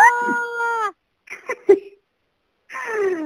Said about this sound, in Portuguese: É, já que a gente falou de coisas que nos aterrorizam, podem soltar um grito? Um grito? Assim? Um grito? Um grito.